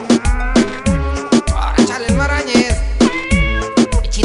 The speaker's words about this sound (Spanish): Mira, Vinagrito, ahí está tu jefa. Vinagrito, ven para acá. Bichito, bichito. Ahí lo tienen, el gatico Vinagrito.